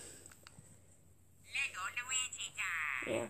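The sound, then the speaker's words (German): An electronic interactive Lego Luigi toy figure chirps to life after a quiet moment, letting out a run of warbling, synthesized bleeps and tones, fairly loud. “Man hört schon, Luigi.”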